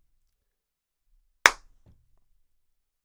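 A single sharp hand clap rings out in otherwise near silence, loud and crisp with a quick decay, followed a moment later by a faint, low thump.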